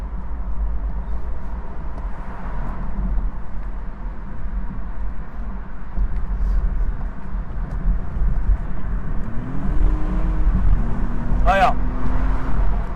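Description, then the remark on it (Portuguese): A four-cylinder BMW car's engine drones steadily as it accelerates at speed on the Marginal expressway at about 90 km/h, a low continuous rumble with road noise, and the engine note rises in pitch toward the end as it pulls harder. “você acelera bem, como ele tem torque em baixa, o carro vem puxando bem, vem puxando bem.”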